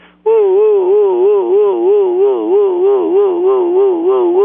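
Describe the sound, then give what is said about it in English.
A shofar sounds one long, unbroken teruah blast of nine continuous wails, the old Ashkenazi version, its loud, brassy tone rising and falling in rapid, regular wavers for several seconds with no talking, a little thin and band-limited. “according to Rabsad Gan, which is the meaning of old Ashkenazim, nine continuous wails.”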